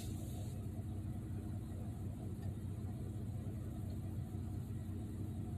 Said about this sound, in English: There's a white woman driving by me right now, looking in my car just to see what I'm doing.